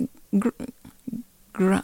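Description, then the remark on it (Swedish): Someone mimics a pig, producing a couple of loud, nasal oinks separated by shorter voiced bits of talk. “Vad heter grisen grymta på engelska? Alltså ljudet oink, oink”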